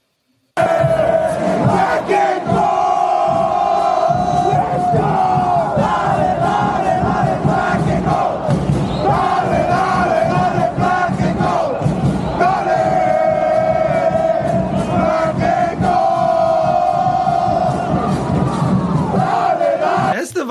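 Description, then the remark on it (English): A large crowd of soccer supporters chants loudly and steadily in a stadium as a tifo goes up, many voices singing in unison for about twenty seconds, with rhythmic surges and a roaring, continuous wash of sound. “You'll just hear some chanting, but he starts losing it a little bit.”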